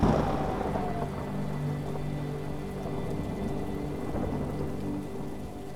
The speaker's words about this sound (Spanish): así que disfruta de esta tormenta de verano. Obsérvala desde arriba, ya que esta tormenta es tan solo para disfrutarla.